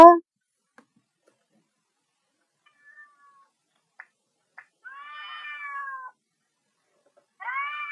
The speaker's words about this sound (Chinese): 哎呦，别叫了，猫咪！